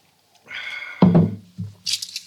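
Glasses meeting in a toast: a brief ringing tone, then a dull knock and a few quick, bright clinks at the end. No one speaks.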